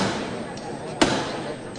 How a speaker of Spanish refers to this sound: este golpe de martillo